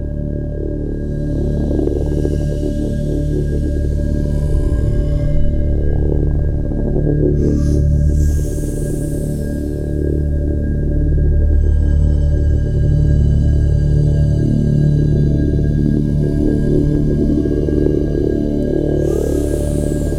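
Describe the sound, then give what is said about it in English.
Layered synthesizer parts play steadily in an electronic track: sustained buzzing tones and pads over a dense low drone, with bright swells coming and going and no voices. “and then I added some more synth parts because still it seemed to me that it's empty and they sound like this.”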